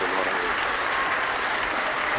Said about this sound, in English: I got my I got my claps going on for too long. There we go.